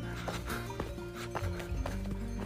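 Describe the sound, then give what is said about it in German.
Several cowbells on a herd of cows peacefully grazing on a pasture clank and clonk irregularly, overlapping with ringing metallic tones, steady throughout, with no voices. “Also, es ist ein absolutes Klischee, diese Kühe mit den Glocken.”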